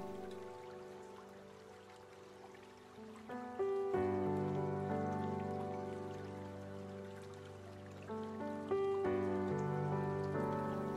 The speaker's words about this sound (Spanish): Simplemente vuelve a enfocarte en este lugar rodeado de naturaleza y presta atención al sonido del agua del río fluyendo.